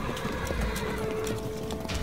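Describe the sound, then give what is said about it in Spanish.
Horse hooves clip-clop in an uneven, steady walk as a horse drags a corpse tied to its saddle to the cemetery in La Paz; each hoofbeat a sharp knock over a dense, rumbling background. A horse whinnies faintly within the din. No one speaks. “El marqués Valdeollo es linchado por los insurgentes y su cadáver amarrado a las monturas de un caballo, siendo arrastrado hasta el cementerio en el campo de Caicón.”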